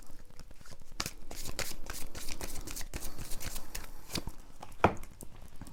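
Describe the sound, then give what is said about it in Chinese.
Oracle cards being shuffled and drawn for a reading, a steady run of quick papery riffles and flicks with a few sharper snaps, moderately loud, with no talking over it. “好，咦，等等，我我要抽神諭牌卡。”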